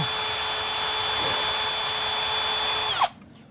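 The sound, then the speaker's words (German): A power drill whirs loudly and steadily, boring holes into a potato for about three seconds before the motor cuts off and spins down, leaving near silence. “Man nimmt diesen Bohrer und dann geht man her”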